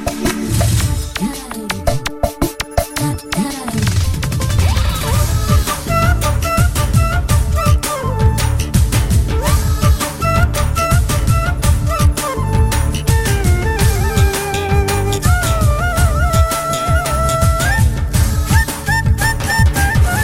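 A film song plays loudly and continuously, with a driving rhythmic beat under bright melodic lines and sung vocals, filling the whole stretch without pause.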